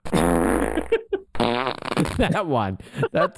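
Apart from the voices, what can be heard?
wet fart sound effect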